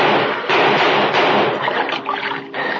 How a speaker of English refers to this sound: I make a dive for shelter behind some piling. I missed my target. Find myself choking. The water dragged me down, choking, gasping, fighting my way up. I break for air